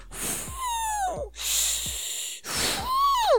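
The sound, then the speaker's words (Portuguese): A voice imitates wheezy, whistling breaths leaking through the nose after punches to the nose in boxing, three drawn-out airy bursts with high squeaky whistles, fairly loud, with no talking. “É, eu fico respirando meio que vazando pelo pito.”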